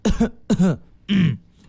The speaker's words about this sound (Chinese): 说天黑的时候路过一个一家人家，路过一个小区的时候，对面过来一个肌肉猛男，然后开始咳嗽，